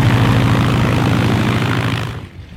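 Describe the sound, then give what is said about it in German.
Steady, loud drone of the propeller engines of a Junkers Ju 52 aircraft, officially under heritage protection, with a low throbbing hum and broad roar, holding constant before cutting off abruptly near the end. No voices. “Die U-52 ist übrigens als einziges fliegendes Objekt offiziell unter Denkmalschutz.”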